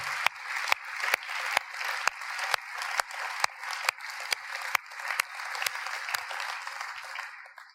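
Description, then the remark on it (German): An audience applauds God together in a steady, sustained wash of clapping, with sharper individual claps standing out at a fairly regular rhythm before the applause fades toward the end. “Es sind so viele Wunder passiert und wir geben doch Gott an dieser Stelle einfach einen großen, großen Applaus für das, was er möglich gemacht hat.”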